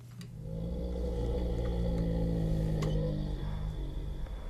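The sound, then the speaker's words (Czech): A male bear named Ludvík snores softly and contentedly, a low droning rumble held steady for several seconds with faint clicking in the background and no voices, in his enclosure near the courtyard of the state chateau in Náchod. “Zatímco medvěd Ludvík si spokojeně pochrupkává”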